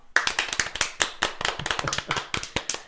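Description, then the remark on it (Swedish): A small group applauds themselves, a quick, uneven burst of sharp hand claps overlapping one another at a steady, lively pace for about three seconds, with no voices over it. “Jag tycker vi gör så här, vi gör en applåd för ja, oss.”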